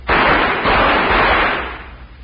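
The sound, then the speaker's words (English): Three loud gunshots fired in quick succession as a signal, their sharp reports blurring into a broad, rolling roar that fades away over about two seconds. No one speaks. “Well, sounds like three shots.”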